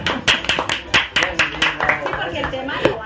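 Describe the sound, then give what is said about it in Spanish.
An audience breaks into applause for the boss, sharp uneven claps for about two seconds over voices talking and cheering, then the clapping thins out as the talk carries on. “¡Un aplauso para el jefe!”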